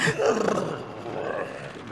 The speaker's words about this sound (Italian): Ora lo hai sentito? Un'intera mandria di bufali che respira.